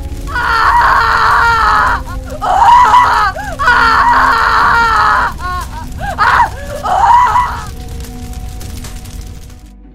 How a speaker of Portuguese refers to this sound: Emma sorria eternamente para Agnes, pouco antes das chamas se acenderem e seus gritos ecoarem por toda a cidadela.